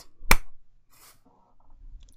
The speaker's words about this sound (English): Didn't mean to clap in y'all's ears. Sorry. That must have hurt.